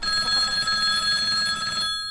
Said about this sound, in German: Wie bestellt klingelte in jenem Moment die Telefonglocke auf dem Gutshof.